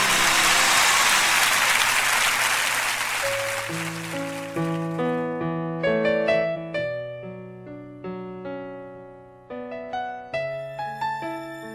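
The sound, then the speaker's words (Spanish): A crowd applauds loudly for María, Our Lady of Aparecida, for several seconds, then the clapping fades as steady instrumental music with sustained notes takes over and continues alone. “Fuerte el aplauso para María.”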